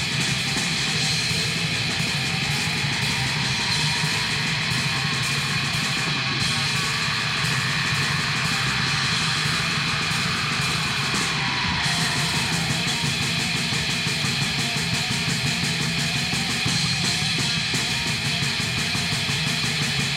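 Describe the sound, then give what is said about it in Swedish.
A dense, muddy band recording made in a rehearsal room, with distorted instruments smeared together at a constant, loud level, sounding lo-fi and crowded, with no voices talking. “De har fan lyckats med bedriften och ha ännu pruttigare inspelning.”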